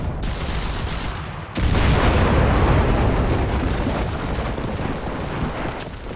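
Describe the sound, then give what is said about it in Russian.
Dense video-game battle noise: rapid overlapping gunfire and booming explosions, loud and continuous, swelling into a heavier barrage partway through with no voices. “Тут, тут война.”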